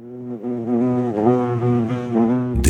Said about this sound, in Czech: Takže jedno teď namířím doleva, hmm, slyším bzučení včel a přílet čmeláka na kopretinu,